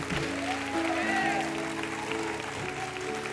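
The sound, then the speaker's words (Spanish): An audience claps in a steady, dense wash of applause that runs throughout, mixed with sustained keyboard chords and a few indistinct voices, applauding the Father, the Son and the Holy Spirit. “Alguien puede dar su mejor aplauso al Padre, al Hijo y al Espíritu Santo.”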